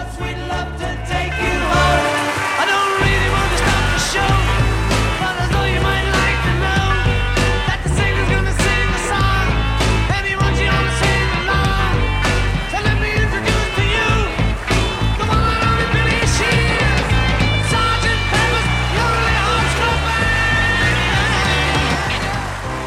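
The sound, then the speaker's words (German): A 1960s rock song plays loudly and steadily for the whole stretch, with a full band and a driving, regular drum beat keeping the rhythm throughout. “ich möchte jetzt ein Lied spielen”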